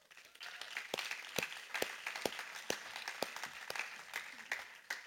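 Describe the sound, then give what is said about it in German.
An audience applauds steadily, many hands clapping in a dense, crackling wash with a few sharper claps standing out, sustained for several seconds at moderate volume, welcoming a person asked to come onto the stage. “Geben wir Rahel einen Riesenapplaus. Applaus.”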